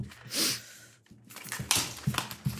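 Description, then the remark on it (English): A hungry dog pattering its way around a room: a soft breathy rush, then a run of irregular light thumps, scrapes and taps like paws and claws shifting on the floor, with no talking. “Um, that was my dog.”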